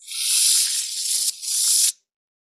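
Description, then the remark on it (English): A loud, steady hiss of food sizzling in a hot pan, bright, lasting about two seconds with a brief dip near the end before cutting off abruptly. “Wait, that's a sizzle light number one. Pan sizzle heavy number.”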